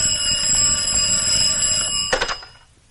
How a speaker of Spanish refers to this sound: Una de las enfermeras sale del quirófano y contesta el teléfono.